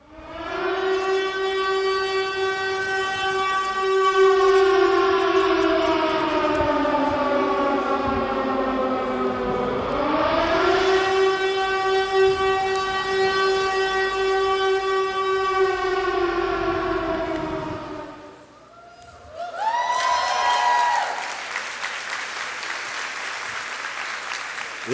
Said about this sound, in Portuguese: Eu acho que você ouviu essa sirene aí pensando, será que o que? Jesus está voltando?